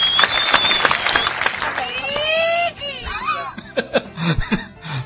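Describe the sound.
A burst of hand clapping fills the first few seconds, mixed with laughter and snickering from several people, then fades into scattered chuckles and voices.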